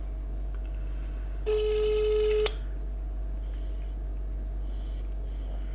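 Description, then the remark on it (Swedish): A phone on speaker plays one ringback tone while an outgoing call connects, a steady electronic burst of about a second, then quiet room noise over a low hum. No one speaks. “Vi ser om han svarar.”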